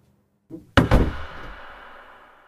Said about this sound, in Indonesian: Bri pun langsung menutup jendela yang ada di kamarnya